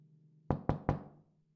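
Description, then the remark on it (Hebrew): Three quick, solid knocks on Martin Buber's wooden door one early morning, evenly spaced, with a low steady hum underneath and a short resonant tail after the last rap. “בוקר אחד שמע דפיקה על הדלת.”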